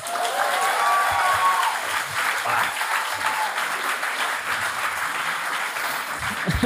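A live audience at the Bierhübeli in Bern applauds steadily, a dense wash of many hands clapping at once that holds at an even, fairly loud level throughout, with faint cheering or voices mixed in at the start.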